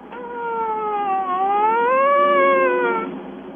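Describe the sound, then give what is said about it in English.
A siren wails on its own for about three seconds, a steady tone that dips lower and then swings back up before fading out, heard clearly at moderate loudness. “Is that a siren?”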